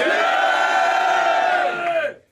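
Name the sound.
crowd cheering and shouting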